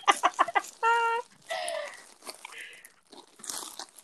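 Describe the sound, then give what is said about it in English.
Crackly crunching of a bag of frozen vegetables, stuck together inside, in a few quick bursts, followed by squeaky tonal sounds and faint scattered rustling. “Some frozen veg. Mm. Oh no, it's all stuck together.”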